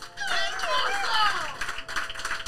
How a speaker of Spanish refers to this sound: Un aplauso, por favor.